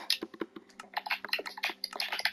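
Rapid, uneven clatter of keys on a computer keyboard, a dense run of close, crisp clicks with a few brief pauses. No one speaks.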